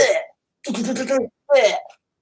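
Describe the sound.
A voice mimics automatic gunfire with three throaty, sputtering bursts separated by short gaps, fairly loud, the middle burst longest and most rattling.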